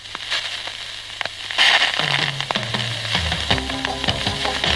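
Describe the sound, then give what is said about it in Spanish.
A record made of ice, frozen from a vinyl record, playing: dense hissing crackle with sharp pops throughout, and a faint, muffled low melody emerging partway through beneath the surface noise. “exactly what a record made out of ice sounds like”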